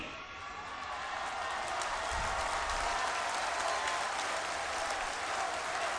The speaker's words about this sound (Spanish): A ver, así como él pidió un aplauso, un aplauso para el gobernador de Nuevo León.